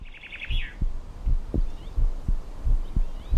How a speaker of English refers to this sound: And there's a close correlation between heart rate and breathing. Their natural rhythms seem to be in a proportion of something like 4 to 1 or 3 to 1, three or four heartbeats for every respiratory motion.